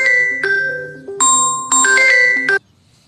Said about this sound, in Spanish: Ya te digo, eh, me estaban llamando por teléfono.